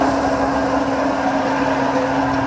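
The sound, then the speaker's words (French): A grain mill at a microbrewery in La Rochette, Savoie, France, crushes malted barley, flattening the grain to break its inside. It runs steadily and loudly: a constant motor hum beneath a dense, gritty grinding rush that never lets up. “C'est le bruit du brassage, c'est ça Du concassage le bruit du concassage. C'est le moulin qui permet d'aplatir la céréale.”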